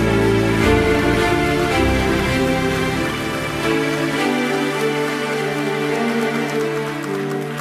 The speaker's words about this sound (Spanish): Denle un aplauso al Señor fuerte.